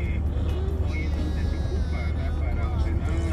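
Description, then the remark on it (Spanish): A long queue of cars on the highway past Los Chorros, heading back to San Salvador and stretching to the Opico roundabout, rumbles steadily, engines humming at a constant loud level, with indistinct voices murmuring underneath. “Vamos a ver si se oye el video que mandaste. Bueno, ah, es que un video de la fila.”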